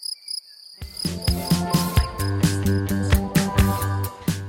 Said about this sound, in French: il y a toujours ce, bruit de, de, de, grillon permanent qui remplit la nuit